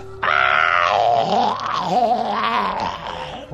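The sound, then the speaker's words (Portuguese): A man's voice lets out a long, strained, growling scream for about three seconds, pitch wavering up and down, loud, imitating the devil's scream heard in a dream while praying. “Só ouvi o grito do capeta assim, ó.”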